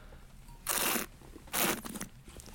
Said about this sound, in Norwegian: Det slurpes og smattes i studio.